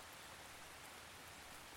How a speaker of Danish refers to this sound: Lyden af den rolige regn gør Geo helt træt.